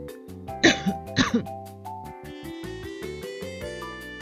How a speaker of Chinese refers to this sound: 哎呀，最近天气变化大，结果我就感冒了。等一下可能还会不小心咳嗽几声呢，请不要介意。